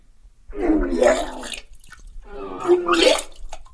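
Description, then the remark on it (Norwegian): Two wet, gurgling splashes in a toilet bowl, each lasting about a second with a short pause between, fairly loud with bubbly, churning water. “Du hører plaska i doa nå.”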